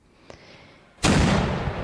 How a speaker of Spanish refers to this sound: Los primeros disparos de los arcabuces, las descargas de ballestas, la visión de los caballeros y los perros de presa, además de esa organización del ataque, provocó que los indígenas, los de la alianza indígena, huyeran aterrorizados.